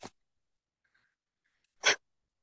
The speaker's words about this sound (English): sorry that's my dog